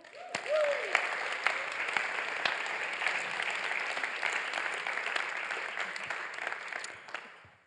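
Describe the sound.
An audience applauds steadily for several seconds, a dense, even wash of clapping that swells quickly and fades at the end, with a brief voice sounding at the start.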